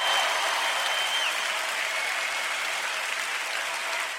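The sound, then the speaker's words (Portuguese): A steady burst of applause from a crowd, many hands clapping densely and evenly at full volume for several seconds, with no voices standing out above it. “O Patrino vai colocar aplausos aí, o fundo que eu sei.”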